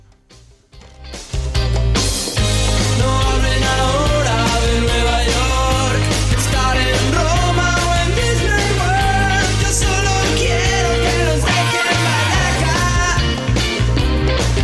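A loud, upbeat 1990s rock song with guitar plays at full volume after a short quiet start, driven by a steady bass and drum beat with dense instrumental layers throughout.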